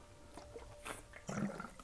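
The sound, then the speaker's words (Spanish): Quiet sipping of water, a couple of brief wet slurps and a soft swallow, with faint handling noise and no talking. “Este, deme un segundo, voy a tomar un poco de agua porque ya me está secando la voz.”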